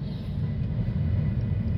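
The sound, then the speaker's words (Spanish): A steady, low engine rumble fills the inside of a car, a continuous deep drone with no breaks, fairly loud, with no voices over it. “un mensaje otra vez más espontáneo, desde mi auto”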